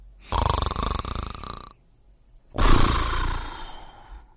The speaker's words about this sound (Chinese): 呼噜声越来越响了，都快把彤彤的积木震塌了。